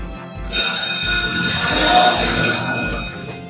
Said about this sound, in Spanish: Eh, subimos y entramos y toca la alarma.